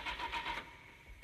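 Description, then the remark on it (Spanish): A car engine cranks in quick, rhythmic whirring pulses for about half a second, then trails off into a low rumble. Moderately loud, with no voices. “¿Arranca o no arranca?”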